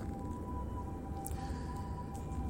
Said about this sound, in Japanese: 救急車のサイレンが鳴っておりますまたまたまだまた増えてきましたね救急車のサイレンの音本当しょっちゅう聞こえてるようなそんな気がしますね